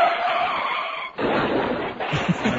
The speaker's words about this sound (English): the gratuitous car crash. You can't miss that.